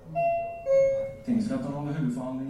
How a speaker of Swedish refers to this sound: Vid niotiden plingar det till i högtalarna.